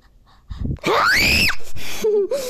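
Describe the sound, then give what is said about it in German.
A loud, high-pitched shriek rises sharply and holds for about half a second, then breaks off, followed by a brief lower vocal squeal. A person screaming, with no speech. “Ich kann halt gut kreischen wie ein Mädchen.”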